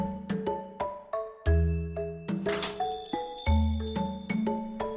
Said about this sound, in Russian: Толкаешь дверь, и тут же раздается звон колокольчика. «Добро пожаловать!» приветливо встречает голос еще более ясный, чем легкий звон.